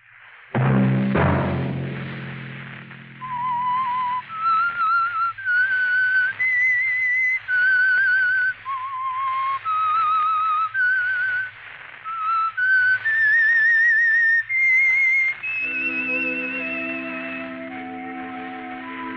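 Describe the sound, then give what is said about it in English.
A solo whistled melody, the theme signal of a Sunday-night radio program, of sustained, wavering notes rises and falls over a low orchestral backdrop, then gives way to a brighter swell of brass and strings near the end. “Let that whistle be your signal for the Signal Oil program, The Whistler”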